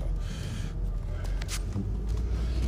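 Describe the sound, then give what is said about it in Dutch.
A car engine hums steadily as the car drives away from the Leeuwstichting in Borkilo, a low constant rumble filling the whole stretch, with faint breathy sounds and brief noises over it. “Het is zo'n gewoonte dat ik uh, eerst mijn telefoon aanzet en dan de auto aandoe dat ik dat nu ook deed toen al de auto aanstond.”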